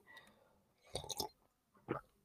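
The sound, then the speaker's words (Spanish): Someone sips coffee: a quick cluster of wet slurping mouth sounds, a pause, then one more short gulp, with no talking. “Eh, me voy a tomar un traguito de café antes de irme.”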